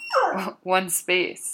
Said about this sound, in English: Um, if you can hear the background, that is my dog Ranger. Uh, I'm just hanging out at home while I'm recording this.